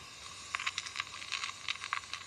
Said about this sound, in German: Ja, so hört es sich an, wenn er hier frisst. Der Kornkäfer. Und was frisst er am liebsten? Korn. Wenn er hier im Getreidesilo sein Unwesen treibt, dann merken das die Landwirte nicht.